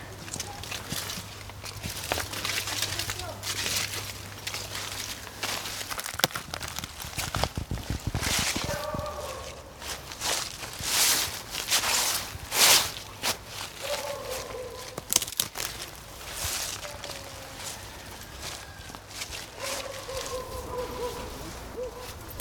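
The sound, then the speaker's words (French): Footsteps crunch and rustle through dry leaves in a steady walking rhythm along a path in a forest, fairly loud, with faint birdsong chirping in the background. “ici dans l'allée quand on marche on entend le bruit des feuilles.”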